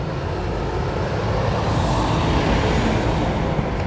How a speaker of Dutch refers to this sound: grote vrachtwagen van Udea komt eraan rijden.